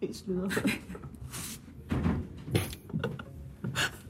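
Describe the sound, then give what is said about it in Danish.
A door is handled and pushed partly shut, with a few brief knocks and scrapes over a couple of seconds while a person talks quietly, during a Korea evening gathering. “Jeg måske skal lige lukke døren lidt.”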